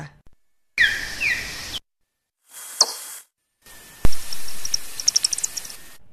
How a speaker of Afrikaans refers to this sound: And it, it, that's important because it uses its nose to echolocate out of or call out of. Die geluide wat vlermuise maak, kan nie altyd deur mense gehoor word nie. Maar as dit opgeneem en aangepas word, klink dit so.